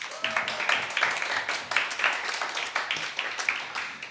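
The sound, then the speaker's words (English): A crowd applauds steadily to welcome an author guest, many hands clapping in a dense, crackling wash that holds at an even level for the whole stretch, with no voices on top. “So, a big round of applause, please.”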